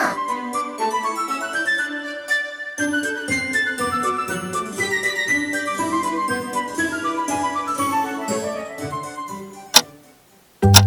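An amusement park's big clock, counting down the park's remaining opening time, ticks in a steady rhythm, woven into a bright, tinkling musical passage; a sharp click sounds near the end, followed by a brief pause before the sound resumes.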